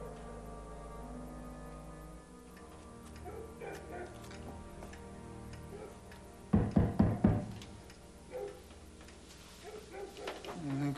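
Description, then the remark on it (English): Four loud, hollow knocks on a wooden door land in quick succession midway through, sharp, over a quiet backdrop of soft music and faint room sounds. “Knock on that door.”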